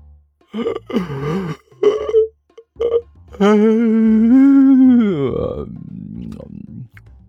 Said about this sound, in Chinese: 尼才打了个大大的哈欠。